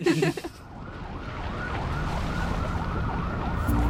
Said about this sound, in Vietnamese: Này, ông có nghe được cái tiếng còi cứu thương réo nãy giờ không? Này, tôi có khiếm thính đâu mà không nghe thấy. Ngay dưới tòa nhà mình đấy,